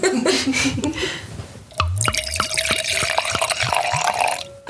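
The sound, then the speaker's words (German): Wine pours into a glass with a steady glugging trickle, a few rhythmic gurgles and a faint ringing tone from the glass, starting after a brief burst of splashy liquid noise. “Das ist Earporn eigentlich. Ja, das ist echt Earporn. Ähm, Wineporn.”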